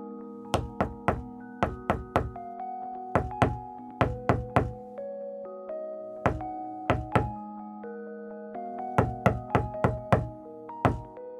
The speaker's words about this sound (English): Knock, knock. Who's there?